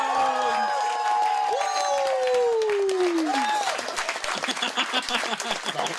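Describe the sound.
A crowd bursts into cheering and applause as a new member is officially welcomed, with loud whoops and high shouted voices rising and falling over steady dense clapping, energetic throughout.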